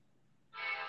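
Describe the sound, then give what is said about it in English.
A train passing by railroad tracks, with a low rumbling drone giving way to a single loud, brassy horn blast that holds for a moment and then cuts off. “You're not standing on the railroad tracks again, are you?”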